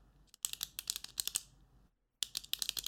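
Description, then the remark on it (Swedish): A rapid flurry of crisp clicks as a pen found on a table is clicked over and over, breaks off for a moment and then resumes at the same quick pace. No voices. “Du hittade en penna på bordet och du ville klicka lite, visst var det så?”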